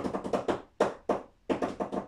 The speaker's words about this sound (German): Je nachdem, die leichte eignet sich vielleicht, wenn man im Nebenzimmer leise Klopfgeräusche hört.